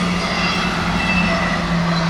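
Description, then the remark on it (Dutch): A train rumbles past with a steady, continuous low roar and a droning hum, even in loudness throughout, with no voices. “Wat, ik zou bijvoorbeeld deze trein eruit kunnen knippen.”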